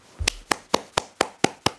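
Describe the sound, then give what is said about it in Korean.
A single pair of hands claps seven times in a brisk, even rhythm, each clap sharp and crisp with short pauses between and no voices. “아, 박수 한 번 주시죠.”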